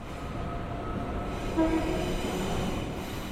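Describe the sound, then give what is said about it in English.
Steady rumbling of a moving train fills the interior, with a short, faint horn tone sounding briefly in the middle before the continuous rolling noise carries on. “Now, let's imagine that Alan and Claire are on the train going home after work”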